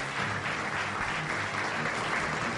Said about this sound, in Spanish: Quiero pedirle a ustedes un aplauso para este gran gladiador